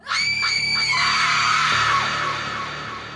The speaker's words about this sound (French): C'est à cet instant qu'un cri assourdissant de femme vient rompre le silence, tellement fort qu'il est obligé de se boucher les oreilles.